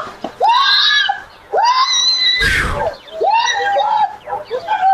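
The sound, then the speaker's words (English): A woman screams repeatedly on security camera footage as she is attacked by three people in Lakeview, Chicago: three long, shrill, wavering cries, with a brief noisy crash between the second and third. “She's being attacked by three person, three three individual black people who jumped out of the car on her in Lakeview.”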